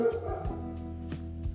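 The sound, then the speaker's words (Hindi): A neighbour's dog barks a few times, short faint yelps spaced unevenly over a low steady hum. “और ये किस किसका कुत्ता भौंक रहा वो पड़ोसी का भौंक रहा साला कुत्ता है कि शेर है साला इतना तेज दहाड़ रहा है”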